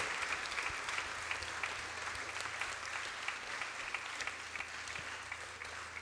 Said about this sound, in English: And Jeremy has had to escape up the road, but let's give a big cheer and thank you for, for Jeremy.